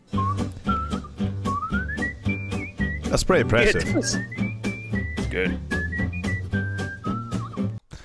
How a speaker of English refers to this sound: Yeah, he's got a jazz whistling improvisation. I like it. Sounds like uh, Mario Sunshine.